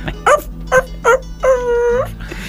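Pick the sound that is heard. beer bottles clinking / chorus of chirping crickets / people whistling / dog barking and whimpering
dog barking and whimpering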